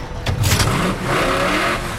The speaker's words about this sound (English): Arlington released the throttle and Steamheart cascaded forward, her engine bellowing, her great black wheels thundering